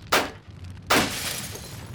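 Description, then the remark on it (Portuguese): Two loud, sharp crashing impacts about three-quarters of a second apart, like car window glass being smashed, the second followed by a lingering scatter of breaking shards, with no talking. “Talvez possamos tirá-lo pela janela.”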